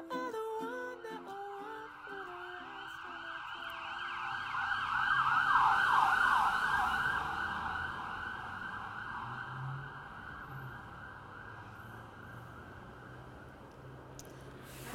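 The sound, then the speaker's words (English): An emergency vehicle siren wails outside, its rising and falling tone swelling louder as it passes, then fading over a low rumble of street traffic. No one speaks. “tired are you of the sirens and the streetcars?”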